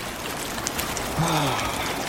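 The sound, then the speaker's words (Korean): Light rain, not yet heavy, falls at night during night fishing in a steady, soft hiss with a few faint drop taps scattered through it. Partway through, a brief voice rises over the patter. “아직 많이 오는 건 아니라서 저는 그냥 있다가 비 많이 오면 그때 입을래요.”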